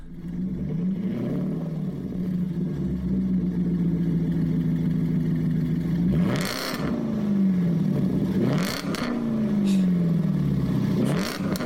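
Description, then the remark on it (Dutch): A Jaguar XK 4-liter V8 engine runs loud, its steady drone broken by three sharp revs that climb and fall in quick succession near the end; no one speaks. “Ik zeg dus dat ik op zoek was naar die Jaguar XK met die 4 liter V8.”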